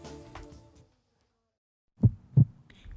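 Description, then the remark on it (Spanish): A heartbeat sound effect in a radio jingle: two deep, thumping heartbeat pulses, lub-dub style, loud after a stretch of silence, following a brief fading musical tail at the start. “En la onda local sigue con nosotros el ritmo creciente de los latidos del territorio andaluz.”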